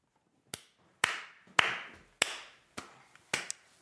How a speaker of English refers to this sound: slow clap, standing ovation